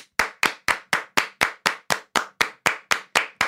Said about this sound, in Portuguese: Palmas. Palmas, palmas muitas palmas.